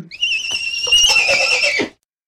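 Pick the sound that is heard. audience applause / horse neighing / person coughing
horse neighing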